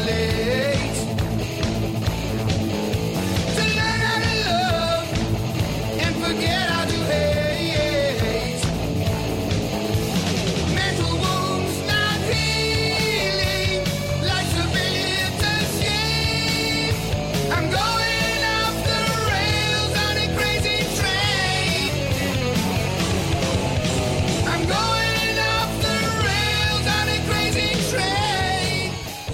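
A loud heavy metal rock song plays continuously, with dense distorted guitars, pounding drums and a sung vocal line filling the whole stretch at steady volume.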